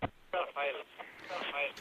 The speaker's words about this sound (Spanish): tienen que acordarse de, apagar la radio cuando entran en directo porque si no se oye, se oye el eco.